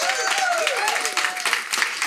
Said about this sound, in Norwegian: Ehm, så det syns jeg vel på sett og vis fortjener en liten applaus, egentlig.